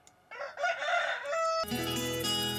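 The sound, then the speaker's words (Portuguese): A single loud rooster crow rings out, its drawn-out cock-a-doodle-doo rising and falling, then cuts off abruptly as a dense burst of music takes over. “Ao galo, caipirada, vamos acordar, vamos pra lida.”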